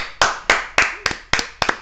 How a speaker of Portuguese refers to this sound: Merece um abraço e uma salva de palmas. Aê!